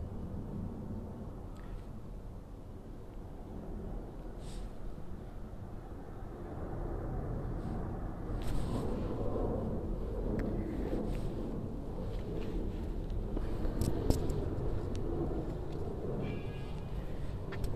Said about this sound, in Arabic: ثواني عشان الطيارة جاية